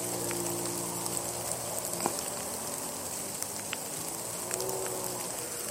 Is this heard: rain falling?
yes